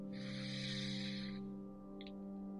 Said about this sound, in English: So we're going to start first by taking a deep breath in through our nose and a gentle breath out of the mouth with the sound of ha. Take another deep breath in through our nose